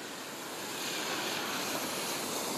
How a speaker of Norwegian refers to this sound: Her som jeg står nå, så ser jeg rett opp i en fjellside hvor det kommer enorme mengder med vann nedover.